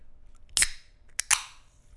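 A drink can is cracked open: a sharp snap, then a second click and louder pop, each trailing off into a brief fizzing hiss. No one speaks.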